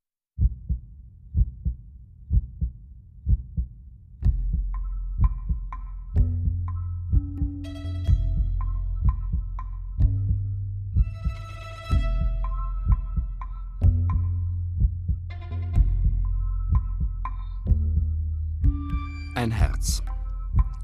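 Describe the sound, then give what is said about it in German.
A steady heartbeat, the heart of a 93-year-old man, thumps in a regular low pulse throughout, joined after a few seconds by deep sustained tones and brighter ringing, chime-like notes layered over the rhythm. “Herzrhythmusgeräusche von ….”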